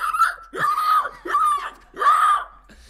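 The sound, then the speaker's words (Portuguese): A voice imitates a pig squealing, four loud, shrill squeals in quick succession, each rising and falling, with no other sounds around them. “Até ouvirmos o barulho, o famoso barulho do porco até ouvirmos o famoso barulho do porco.”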